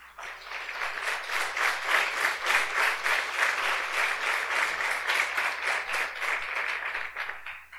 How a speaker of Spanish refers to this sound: Desen un fuerte aplauso.